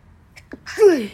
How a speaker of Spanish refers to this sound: Voy a estornudar de la emoción.